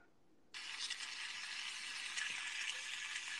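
Bacon sizzles in a hot frying pan, a steady, dense crackle that starts abruptly after a moment of quiet and keeps hissing at an even, fairly loud level with no talking.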